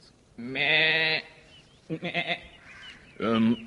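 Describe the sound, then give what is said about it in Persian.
A sheep bleats three times: a long wavering baa, then a short stuttering one, then another brief cry, each loud and clear with quiet pauses between. The sheep is with a butcher who is passing by. “همون موقع مرد قصابی داشت از اونجا رد میشد قصاب یک گوسفند همراهش بود”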